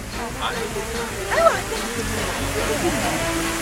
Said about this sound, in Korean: 왕이시여, 소나기가 지나가는 것 같습니다. 잠시 안으로 드시지요. 때마침 비가 내려서 다행입니다.